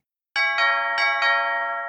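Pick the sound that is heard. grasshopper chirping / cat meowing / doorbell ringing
doorbell ringing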